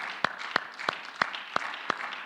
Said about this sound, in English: Let's give the Lord another hand clap before we sit down.